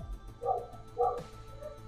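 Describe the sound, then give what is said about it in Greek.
Two sharp dog barks land about half a second apart, fairly loud, followed by a fainter yip at the end over a low background hum. “Και με τα σκυλιά.”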